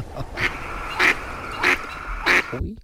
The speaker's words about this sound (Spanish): Yo creo que esto debe ser la casa de Dalí. Ahí lo pone. Dalí, que es Dalí ahí en catalán. Voy a llamar timbre.